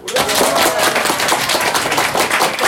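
An audience at a 'What? Where? When?' quiz game held at a special boarding school in Simferopol, Crimea, bursts into loud, enthusiastic applause, a dense, steady roar of many overlapping hand claps that keeps going without pause for the whole stretch, with no voices heard over it.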